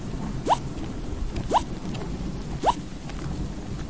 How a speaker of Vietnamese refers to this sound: Trước cơn mưa tới bất ngờ Dancoy liền ngay lập tức chạy đến bên một cái hang lớn trú mưa Định bụng chờ cho trời tạnh